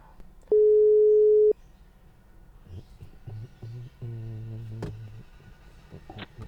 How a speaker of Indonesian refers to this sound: Kita telepon dulu si bocah.